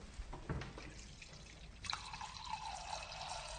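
Water pours into a wine glass, starting with a few splashy drips and then a steady stream whose ringing tone climbs in pitch as the glass fills. No one speaks.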